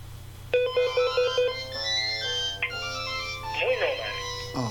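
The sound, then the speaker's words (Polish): A mobile phone ringtone plays a bright, melodic electronic tune with rapid repeated tones, sustained chords and a warbling phrase, over a steady low hum; no one speaks. “Tylko raz powie i potem już będziemy słyszeć tylko dzwonek.”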